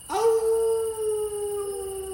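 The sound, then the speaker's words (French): A werewolf's howl rings out alone, one long sustained wail that rises sharply and then holds a steady, slightly wavering pitch. It is loud and continues unbroken. “Mais chaque été, Tel le loup-garou les soirs de pleine lune,”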